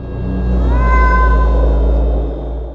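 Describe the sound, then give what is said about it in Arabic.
A single drawn-out meow from an old cat, high and wavering, rising then slowly falling over about a second, set against a steady low rumbling drone that continues throughout. “لقى قط عجوز مرمي في ركن من القطط اللي ماتت خده وشاله وراح بيه على المصرف”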